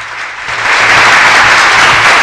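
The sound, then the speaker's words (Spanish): A burst of crowd applause played as a sound effect by the radio operator on the show Aguanta y Opina, a dense, steady wash of many hands clapping that swells slightly and holds loud for a couple of seconds, with no one speaking. “Aplauso, por favor. Vuelve ahí el operador.”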